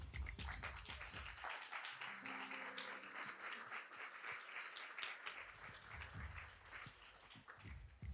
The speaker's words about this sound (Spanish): Queremos dar un aplauso a todo el equipo Terrat por hacer posible también Podtalks 2022, edición especial, el Terrat.